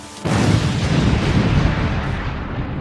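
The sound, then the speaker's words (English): A sudden, powerful explosion as barrels of gunpowder in the cellar under Parliament go up after a fuse is lit, bursting in abruptly after a brief hush and rolling on as a loud, sustained roar and rumble with no voices. “In my dream, I saw him stand before the barrels of gunpowder and light his fuse. I heard a mighty explosion”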